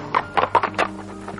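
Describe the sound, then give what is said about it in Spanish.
Horse hoofbeats of an approaching rider clop in a quick, uneven rhythm, four distinct, fairly loud hits, then trailing off into faint taps. No one speaks. “El príncipe vio que se aproximaba un jinete”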